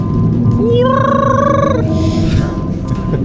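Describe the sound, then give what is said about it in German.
A loud whale call: one drawn-out, rising tonal moan that holds steady for about a second, rich in overtones, over a constant low rumbling background with no talking. “Ihr ich hört nebenbei mit, lauten Wahlgesang. Klingt ungefähr so.”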